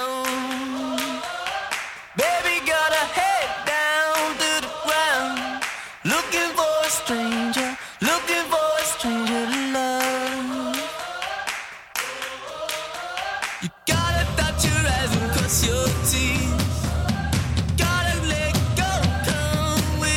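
A loud, energetic indie rock song plays with a sung vocal line over guitars and drums, then shifts partway through into a denser, noisier full-band section with shouted, crowd-like energy.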